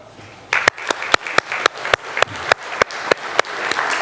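A church crowd breaks into applause for all mothers, with sharp, steady claps standing out at a brisk regular beat over a dense wash of many hands, holding at a fairly strong level throughout.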